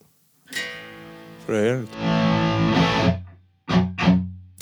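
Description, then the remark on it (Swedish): A distorted electric guitar, picked up by a stereo room microphone, plays a few short phrases with a wobbling string bend and sustained chords, sounding slightly roomy, with brief pauses between bursts. “Ste stereorumsmick helt enkelt.”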